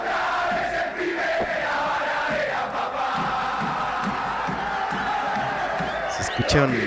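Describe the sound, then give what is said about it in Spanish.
A large crowd of barra brava football supporters chants and shouts together outside a window in a steady, rowdy roar, voices blending into a continuous rhythmic din with occasional louder cries rising above it. “barra bravistas ahí.”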